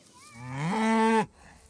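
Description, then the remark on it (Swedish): A single loud moo from Freja, a cow in a herd waiting to be moved to a new pasture in Sörmland, rising in pitch and holding for about a second before cutting off, with faint outdoor background afterward and no talking. “Snart ska de få komma till en ny hage och nytt färskt gräs. Så de ropar ofta.”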